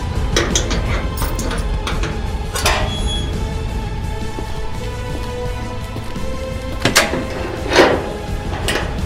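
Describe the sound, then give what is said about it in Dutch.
A door being opened, with a few sharp clacks and rattles standing out against a steady, rain-like hiss in the background. “Ik doe de deur open en dan krijgen jullie vijf minuten van me.”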